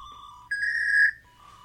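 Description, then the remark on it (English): A dial-up modem connecting to the internet, held up to the microphone: a steady electronic beep jumps to a higher, louder sustained whine for about half a second, then drops back to the lower tone, with no talking. “That's us connecting.”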